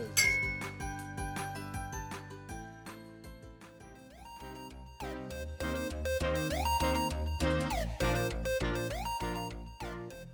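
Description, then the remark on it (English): Glasses clink together repeatedly in a toast, a bright, ringing jumble with overlapping chimes and a steady, fairly loud tonal wash underneath, with no voices. “Cheers!”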